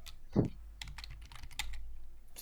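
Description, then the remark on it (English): Rapid clicking of keys on a computer keyboard as someone types, a quick irregular run of crisp taps with one heavier thump near the start, no voices. “don't mind my typing while I type in Go Go Power Rangers right now”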